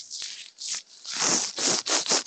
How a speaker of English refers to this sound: Sounds like paper. That's my beard.